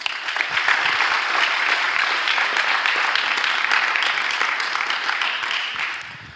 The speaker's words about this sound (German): Nochmal einen Applaus.